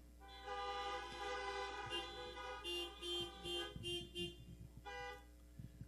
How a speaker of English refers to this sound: If you prayed that prayer and you really meant it, if you prayed that prayer anytime in your life and you really meant it and you really got saved, would you honk your horn right now?